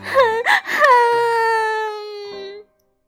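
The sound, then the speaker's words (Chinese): A child wails and cries over a lost lucky coin, starting with a few short sobbing bursts before breaking into one long, high, drawn-out wail that holds steady and then cuts off. “别哭，我再给你一个，看，跟那个一样吧。”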